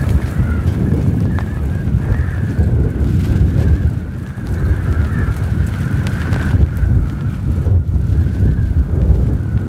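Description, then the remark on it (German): Strong storm wind roars and buffets continuously in the stadium arena in Oberhof on a Friday afternoon under a storm warning, with gusts up to 85 km/h: a heavy low rumble with a faint thin whistle riding above it, steady and loud throughout with no voices. “Der Grund ist eine Sturmwarnung. So klang das zu dem Zeitpunkt in der Arena.”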